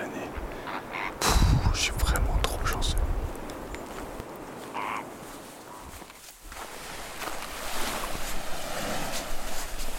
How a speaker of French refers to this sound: j'ai poursuivi le chemin et comme vous pouvez l'entendre, je suis arrivé jusqu'à la mer, jusqu'à la plage. Et en fait, c'est une sorte de langue de sable coincée entre l'étang et la mer, absolument de toute beauté.